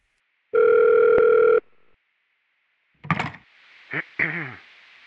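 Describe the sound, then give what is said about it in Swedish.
One loud electronic telephone ring lasting about a second, then a short pause, a clunk like a receiver being picked up, and a few faint voice-like sounds, as a listener from Sundbyberg phones in to a studio broadcast. “tack för att du ringer in.”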